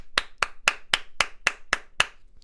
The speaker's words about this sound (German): Einklatschen? Äh, ich, wird geklatscht? Ich glaube nicht.